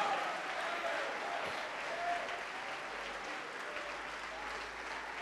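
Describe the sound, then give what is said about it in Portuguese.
A church audience claps steadily and continuously in praise of the Lord, a dense wash of applause from many hands at a fairly even level throughout. “Olha quanta gente, vamos aplaudir mais ao nome do Senhor.”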